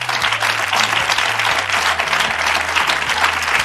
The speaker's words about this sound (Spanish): Venga, ya podéis... Sobera. Un aplauso, Carlos Sobera.